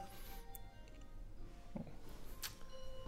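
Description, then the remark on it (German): A washing machine that is not a smart model starts up in the background: a few soft mechanical clicks and ticks over a low, steady hum and faint whine. It is quiet, with no one talking. “Das ist eine nicht so smarte Waschmaschine im Hintergrund, die jetzt gerade losgeht.”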